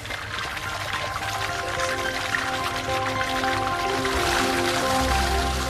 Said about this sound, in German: Da sind die Sojabohnen schon richtig schön weich geworden, haben sich mit Wasser vollgesogen. Das überschüssige Wasser wird wieder abgelassen.